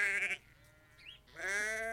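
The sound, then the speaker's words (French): Two loud sheep bleats with a quiet gap between them, each a wavering, nasal cry rich in harmonics; no talking. “et qu'en gros, mon père s'occupait des brebis.”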